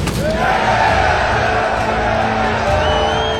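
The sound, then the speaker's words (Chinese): A loud, dense crowd of prisoners in Prison Break season two cheers and shouts continuously, eager to watch a life-or-death fight between Michael and Whistler, with whoops and bellowing voices rising out of a steady roar that holds for several seconds. “迈克和惠斯勒必须要死一个，所有人都欢呼喝彩，迫不及待的想要观赏这场生死大战。”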